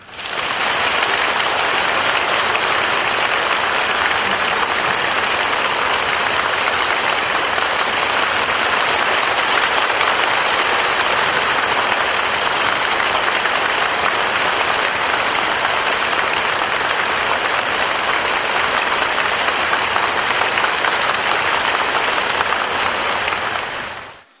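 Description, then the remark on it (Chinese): A large audience at a Buddhist gathering claps steadily and loudly for the whole stretch, a dense, continuous wash of applause with no pauses and no talking over it, given in encouragement for the master. “你们的掌声带给我们佛教无穷的希望。”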